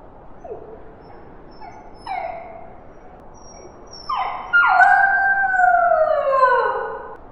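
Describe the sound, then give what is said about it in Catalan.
A prolonged animal howl raised into the air under the moon, its first ever howl, starting with a few short rising yips, then swelling into a long, loud, wavering howl that echoes off the rocks, slowly slides downward and trails off, with no talking. “Ha udolat per primer cop.”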